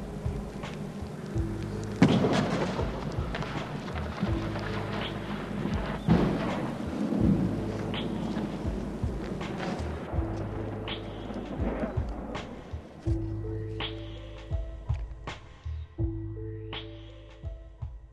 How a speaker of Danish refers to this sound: Kort efter tager torden for alvor fat.